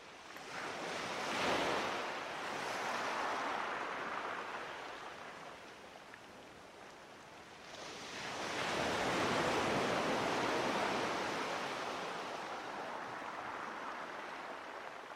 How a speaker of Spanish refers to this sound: Vamos a quedarnos un momento con esta imagen del mar y los golpes que le da al risco o a la roca para forjarla.